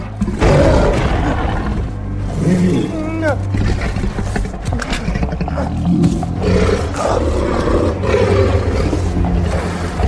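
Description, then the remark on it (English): A tiger roars loud, deep rumbling snarls and growls rolling on almost without pause for about ten seconds, thick with low-end rumble. “but at the same time there's that goddamn tiger walks up behind him”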